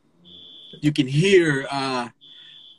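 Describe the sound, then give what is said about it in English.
A smoke alarm going off next door gives two steady, high-pitched electronic beeps, each about half a second long and fairly faint. A man talks in the gap between them. “No, that's a smoke alarm, oh.”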